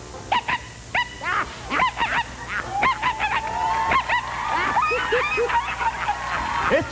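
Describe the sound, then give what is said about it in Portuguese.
A person imitates a dog barking with a rapid string of loud, yappy barks, nasal and honk-like, repeated almost continuously over a faint background hum. “E outro cachorro? O outro já mais forte, né? É. Vira-lata, pudo, cachorro é. de madame.”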